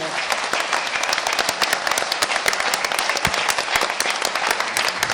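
An audience applauds two guests at the end of a conversation program, a dense, sustained wash of many hands clapping at once, loud and even from start to finish with no voices standing out.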